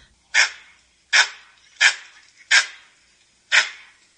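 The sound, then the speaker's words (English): A langur's alarm call: five sharp, harsh bark-like cries, loud, repeated at roughly even intervals with brief silences between, no voices present. “Uh, but yeah, and if you guys want to hear a langur call, this is an example of like a more of a, an alarm call.”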